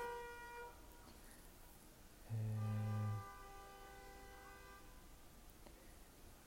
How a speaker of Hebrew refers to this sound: צפירה, צפירה, צפירה.